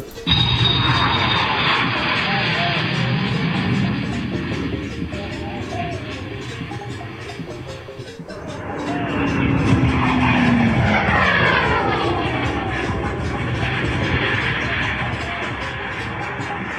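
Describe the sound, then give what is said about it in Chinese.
A propeller airplane drones steadily overhead, its engine roar swelling again midway with a sliding, falling whine as it passes, then holding a loud, even hum to the end. “装冰的箱子先上了轮船，又上了飞机。”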